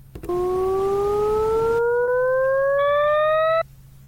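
A single steady electronic tone, a sound representation of a graph of an increasing linear mathematical function, glides smoothly and continuously upward in pitch for about three seconds, loud and clear with no talking, then cuts off abruptly.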